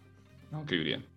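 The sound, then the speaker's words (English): A single sneeze: a short voiced intake, then a sharp, loud burst of breathy noise that cuts off quickly. No words are spoken around it. “Bless you.”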